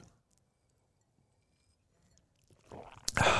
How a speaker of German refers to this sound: Ich trinke erst noch mal einen Schluck. Hm, Prost.